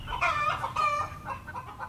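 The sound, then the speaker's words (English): Several chickens cluck in quick, overlapping bursts while a rooster crows among them, fairly loud, with no voices present. “Chickens are awake and ready to go well before dawn.”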